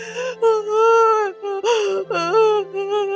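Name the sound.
child crying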